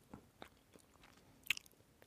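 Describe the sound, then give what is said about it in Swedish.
Chewing cheese that contains bits of rosemary, with several crisp, crunchy bites at an uneven rhythm, the loudest snap about two thirds through, heard alone without any talking. “och Man bara, jag är egentligen inte opposed till smaken av rosmarin men jag vill inte sitta och tugga på den här kvisten.”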